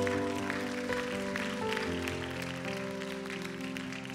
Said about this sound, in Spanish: Un fuerte aplauso y si tú hiciste esa oración.